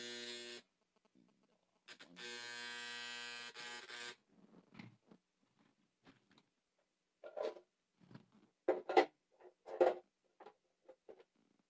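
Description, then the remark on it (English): A heater gives off a loud, steady electric buzz in two bursts, one short and one lasting about two seconds, then it stops and a voice speaks quietly in the room. “Uh, okay, the eater is uh, really um, make a little bit noise, and I, I took care of it now, right?”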